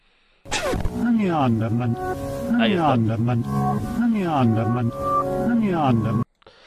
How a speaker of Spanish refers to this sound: Vamos a escuchar un pequeño pedacito de cómo sonaba este mensaje subliminal. Turn me on, dead man.